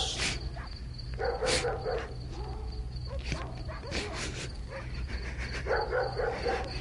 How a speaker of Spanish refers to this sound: Destrabó difícilmente los dedos con que su hijo había venido sosteniéndose de su cuello y al quedar libre, oyó como por todas partes ladraban los perros.